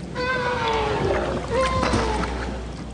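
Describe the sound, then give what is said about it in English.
North Atlantic right whale calls: several tonal, harmonic moans that glide up and down over steady underwater hiss, moderately loud and continuous, with no one talking. “A study by Susan Parks at Syracuse University compared recordings of North Atlantic right whale calls from the 2000s”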